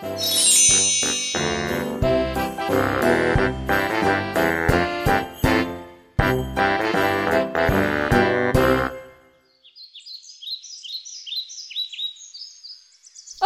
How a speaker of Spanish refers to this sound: Esto que escuchas es el hermoso bosque donde yo vivo.